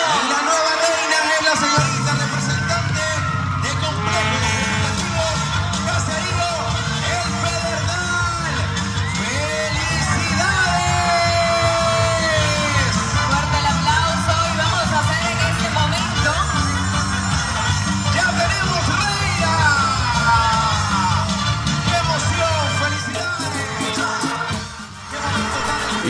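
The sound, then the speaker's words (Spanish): A loud, sustained crowd roar of cheering and applause at the 2019 Certamen de Belleza beauty pageant, as the first runner-up, representing Cantón Guajiniquil, is announced, with whoops and shouts rising over dense clapping throughout, dipping briefly near the end before swelling again. “Fuerte el aplauso.”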